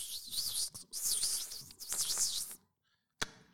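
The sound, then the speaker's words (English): A voice mimics the thin, high-pitched whine of an electric RC buggy lapping a track, warbling up and down for a couple of seconds before falling silent, followed by a single sharp click. “That's the noise of an e buggy going around a track.”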